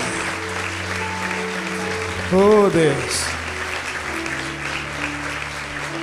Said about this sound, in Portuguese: Vamos aplaudir nosso Deus. Oh, Pai.